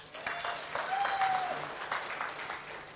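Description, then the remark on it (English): An audience claps its hands in a dense, steady patter of applause that fills the whole few seconds at an even, moderate loudness, with a brief faint voice mixed in. “whether it's worship or even something you listen on the radio, if that's you, clap your hands.”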